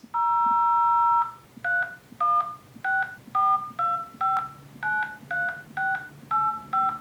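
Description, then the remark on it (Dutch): A long dual-tone beep followed by a quick series of about ten shorter keypad tones, each a crisp two-pitch chirp, as a contact number for Instagram is dialed on a phone, clear with no talking. “Ik ga kijken of ik een contactnummer kan vinden voor Instagram.”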